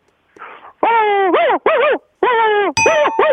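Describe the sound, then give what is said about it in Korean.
A person's voice imitates a dog barking: a quick series of about six loud, drawn-out yelping barks, some bending down in pitch, with no other sounds. “그 성대미사 여러 가지를 했었는데 우선 계속 개짖는 소리.”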